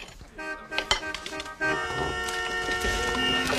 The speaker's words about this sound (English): Sounds like a traffic jam out there. Wonder what it is.